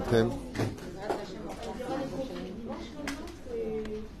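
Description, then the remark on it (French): Chairs being shifted and set back in place, with repeated knocks, scrapes and clatters over a few seconds, while indistinct voices murmur. “Toda Rabba, remettez les chaises”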